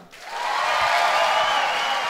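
An audience bursts into applause, quickly swelling into a dense, sustained wash of clapping that holds steady at full volume with no voices standing out.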